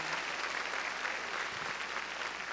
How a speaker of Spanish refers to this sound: A ver, démosle palmas fuertes, hermano, a nuestro Señor.